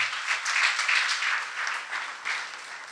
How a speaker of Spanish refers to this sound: El que crea, déle un aplauso al Dios Todopoderoso.